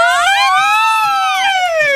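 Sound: siren wailing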